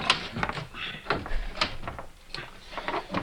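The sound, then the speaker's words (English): Several sharp knocks and clicks with rattling scrapes as a wooden door is pushed against while its handle is turned and jiggled, over a few seconds with no talking. “You just have to put pressure on the door while you turn.”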